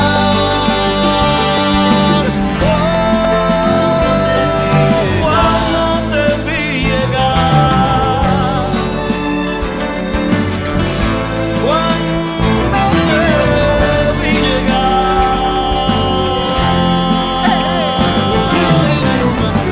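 A trova song plays steadily and loudly throughout, with full, warm instrumentation and sustained melodic lines, continuous with no pauses or talk over it.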